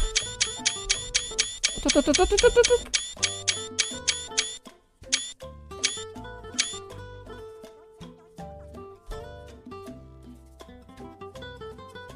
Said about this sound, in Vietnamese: ô thôi thôi kẹt cái nút đéo nó chụp lúc mấy trăm cái ảnh là thế đéo nữa nhở Địt mẹ bàn phím này